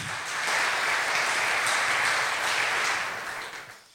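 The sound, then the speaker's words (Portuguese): A crowd applauds steadily for a biblical interpretation, a dense wash of many hands clapping that holds strong for about three seconds before thinning out and fading at the end. No voices are heard. “Eu quero um aplauso para essa interpretação bíblica.”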